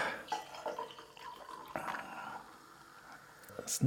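A drink is poured into a glass: a quiet, uneven splashing trickle with a few drips and soft clinks, ending in a brief sharper sound.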